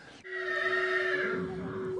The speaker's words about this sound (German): und da haben wir jetzt ein Pferd drin. Das Pferd ist 38 Jahre alt. Das ist ein nordischer Fjord.